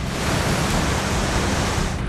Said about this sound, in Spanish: La vivienda que habitaban está a tan solo unos centímetros de la feroz corriente de la barranca desbordada.